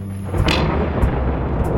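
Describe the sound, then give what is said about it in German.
A heavy thunder clap booms loudly after a lightning flash, with a sharp crack at the start followed by a deep, continuous rumble that fills the short clip. No voices are heard. “Ein Blitz tauchte die Küche in ein grelles Licht und mit dem nächsten Donner fiel ein neuer Stein.”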